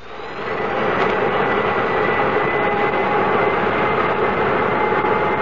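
The engines of Transways airliner K Flight 113 start up after ground control grants permission, their roar swelling over the first second into a loud, steady whine and rumble that holds without a break. No voices are heard.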